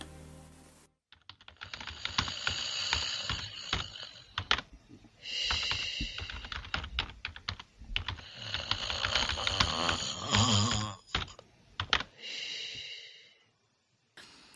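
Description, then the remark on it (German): Loud, rasping snores from people taking a short midday nap repeat every few seconds while quick keyboard clicks from someone browsing the internet patter steadily underneath; no one speaks. “Während … und … einen kleinen Mittagsschlaf machen, klickt sich Babsi durchs Internet.”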